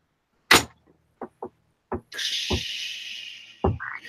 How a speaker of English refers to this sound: It's like the door kind of opens a little bit like a spaceship.